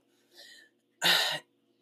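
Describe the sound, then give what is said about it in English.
A quick breathy intake is followed by one sharp, loud cough, with no talking around it. “I think one of the other things, sorry, I, am just over here coughing and trying not to sniffle.”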